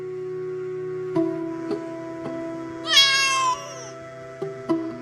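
A single clear cat meow rises and falls midway through, over a steady low tonal drone with a few soft knocks scattered before and after.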